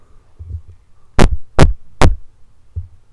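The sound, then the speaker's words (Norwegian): Three loud, evenly spaced thumps of fingers tapping directly on the microphone being spoken into, each a sharp knock over a low steady electrical hum. “har en følelse av at Altså, dunk på den mikrofonen du snakker inn i da.”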